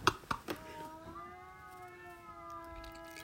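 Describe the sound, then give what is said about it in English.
A few sharp knocks, then a cat in heat, one of several outside a house in summer, caterwauls in one long, drawn-out, wavering yowl that holds steady for several seconds, moderately loud, with no one talking. “These cats is getting it in. And they are so loud.”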